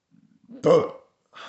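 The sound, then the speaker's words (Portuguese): A loud, drawn-out burp rumbles up after a few faint throaty clicks, lasting about half a second, followed by a brief breathy noise. “Amanhã eu posto com o tempo, peraí, arrotão, né? Tem que ter o arroto, né?”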